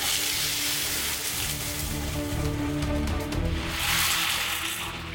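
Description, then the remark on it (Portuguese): A glass of water is thrown into a pan of overheated oil on the stove, setting off a loud, continuous hissing sizzle that swells into a harsher roar near the end before easing slightly, with no voices. “Não posso de forma alguma, se a panela superaquecer, eu jogar nada. É o copo com água e na hora que eu jogo, olha o que acontece.”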